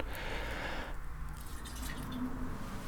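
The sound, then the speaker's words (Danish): Water splashes and trickles steadily for about a second as a little water is poured into a tea bowl to wet a bamboo whisk and warm the bowl, then fades into softer drips and gurgles, with no voices. “så hælder Mikkel lidt vand op i skålen, som bliver brugt til dels at gøre piskeriset vådt med, så teen ikke klistrer fast til piskeriset, men også til at varme skålen.”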